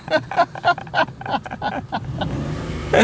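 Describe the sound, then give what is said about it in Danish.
A car drives along and turns, with a steady low engine rumble and road noise, while voices talk intermittently over it before the engine sound carries on alone. “Du er ikke bange for sådan en 90-årig kørebil, vel?”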